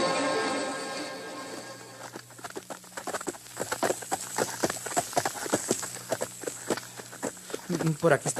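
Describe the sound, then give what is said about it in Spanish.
Horse hooves clip-clop in a quick, uneven stream of sharp knocks, moderately loud, beginning after a brief opening stretch of voices and a low steady hum. “bueno dejar los caballos, señor inspector, porque si nos acercamos más, nos oye”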